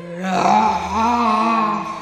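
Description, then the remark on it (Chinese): A man, as the character Injun Joe, raises his head toward the night sky and lets out a loud, drawn-out howl, his voice swelling and wavering in pitch as it carries on for about two seconds without a break. “复仇之后的印第安乔站直了身躯，抬着头朝着夜空大声嚎叫，”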